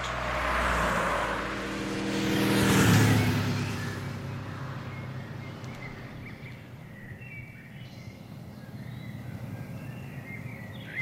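A motorcycle engine roars, revving as it passes and fading within a few seconds, leaving a quiet outdoor background with faint birdsong, in Würgau in Franconian Switzerland.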